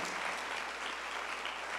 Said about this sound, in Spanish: Si usted va a aplaudir, hágalo como que usted está aquí.